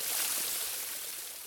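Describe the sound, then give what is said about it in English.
A small stream babbles and trickles steadily, a bright continuous rush of running water with no voices, fairly quiet throughout. “Yes, it's running water, and this water was running in a little stream next to Sampa.”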